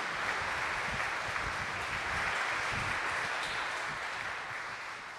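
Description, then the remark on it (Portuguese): A church audience claps together to welcome one another, in a steady, dense wash of applause that stays loud for several seconds, then begins to ease off toward the end. No one speaks over it. “Mas primeiro, vamos nos acolher mutuamente com uma salva de palmas uns aos outros.”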